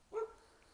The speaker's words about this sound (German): Wow, okay, das ist ein Hund.